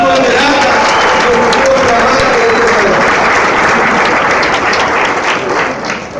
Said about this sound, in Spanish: ¿Verdad que sí? Ese aplauso